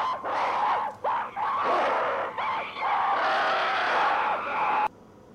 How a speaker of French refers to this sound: Donc, on voulez vous passer des bruits de singes absolument fantastiques. Ah, voilà, on les a, c'est bon, ils sont là.